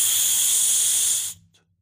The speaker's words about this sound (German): Hermann hält seinen Finger vor seine Schnauze. Psst.